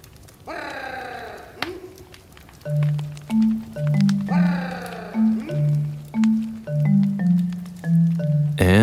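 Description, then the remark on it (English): A man's voice gives a loud, rolling trill followed by a string of short, low hummed grunts, and the whole pattern repeats twice: a human call used on the African savannah to summon honeyguide birds, which guide people to beehives. There are no spoken words, only the call. “People will make this call”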